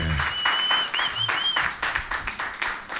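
An audience applauds steadily for about three seconds, a dense wash of many hands clapping, with a thin high whistle sliding briefly through the middle.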